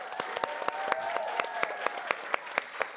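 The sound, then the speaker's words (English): A crowd breaks into sustained applause welcoming writer and podcaster Coleman Hughes onto a panel, dense overlapping claps with a few sharper ones popping out, and sustained whoops of cheering rising above the clatter. “Make some noise for Coleman Hughes, y'all.”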